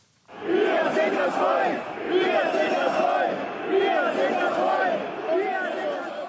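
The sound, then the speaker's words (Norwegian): A large crowd at a demonstration of the Islam-critical movement Pegida chants the slogan "We are the people" in unison. Loud, repeated shouted phrases rise and fall in a steady rhythm, and the voices blend into a dense roar between the chants. “Vi er folket, roper den islamkritiske rørsla Pegida.”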